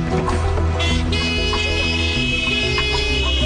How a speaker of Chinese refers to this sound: 哎，你们在按什么喇叭啊？莫名其妙哎！